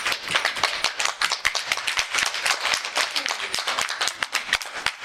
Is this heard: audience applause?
yes